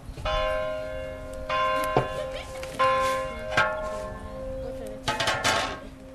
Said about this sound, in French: Que la cloche de l'église se mette à sonner et toutes abandonnent leur ouvrage et se retrouvent, mains jointes, dans la cour de leur foyer.